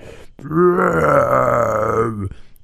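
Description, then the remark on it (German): A voice imitates the bellowing call of rutting elk heard all night during rutting season in New Zealand while wild camping outdoors: one long, loud, low groaning call lasting about two seconds, rough and throaty with a steady drone before it cuts off. “Aber äh, mindestens auch zehn Elche haben gerührt.”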